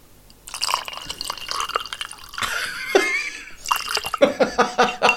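Rum is poured over ice and lime, a bright trickle of liquid splashing into a glass, ending in a quick run of drips and light clinks.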